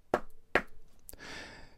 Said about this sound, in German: Ich klopfe auf Holz.